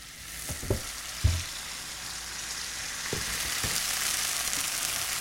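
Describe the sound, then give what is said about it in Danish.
Steady hiss of pancake batter frying in a hot pan, with a few soft clinks and scrapes of a utensil near the start and middle, moderately loud, no voices. “Hvorfor bliver den første pandekage altid dårlig?”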